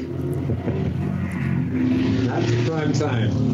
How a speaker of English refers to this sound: What the? That was a motorcycle. I don't know. Sometimes I go by it. A Harley. Damn.